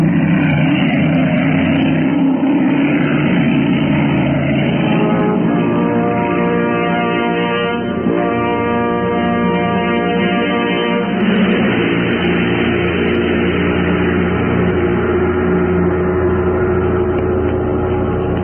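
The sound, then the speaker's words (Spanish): A loud car engine roars steadily for the whole stretch, its pitch rising and shifting in the middle as a fast car speeds past, crossing a police cordon, with no voices. “veloz auto cruzó el cerco policiaco y segundos después, una sonrisa de triunfo iluminó aquel rostro lleno de arrugas.”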